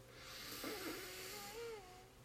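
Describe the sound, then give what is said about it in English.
A slow, deep breath drawn in through the nose, a soft airy hiss lasting a couple of seconds, quiet, with faint sustained tones humming underneath. “One more time, breathing in”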